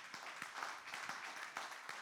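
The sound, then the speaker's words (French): An audience applauding the Lord during a sermon on 2 Samuel 5: dense, steady crowd clapping with sharp individual claps standing out, sustained at an even level for the full two seconds, with no speech over it. “Est-ce que ça ne vaut pas le coup d'applaudir le Seigneur qui fait ça”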